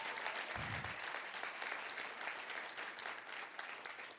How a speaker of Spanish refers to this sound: Dele un aplauso fuerte al Señor, vamos.